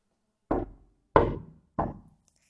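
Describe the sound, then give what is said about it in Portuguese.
Three firm knocks on a wooden door, evenly spaced about two-thirds of a second apart, each a sharp thud with a short decay, alone with no talking. “Ele chegou primeiro e bateu na porta da vovó assim.”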